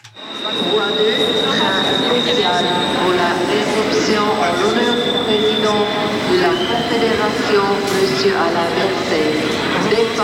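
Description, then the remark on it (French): Steady, loud rumble of a moving train heard from inside the carriage, carrying Alain Berset with his family, friends and the Fribourg delegation to Parliament in the afternoon, with a constant whine, rattling wheels and occasional faint squeals, and indistinct voices murmuring beneath the noise. “les a accompagnés durant le train cet après-midi”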